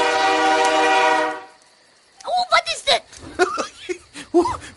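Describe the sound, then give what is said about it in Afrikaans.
A loud, steady train horn blares for about a second and a half, then cuts off, followed after a short pause by someone talking and chuckling. “Dis net tienie trein.”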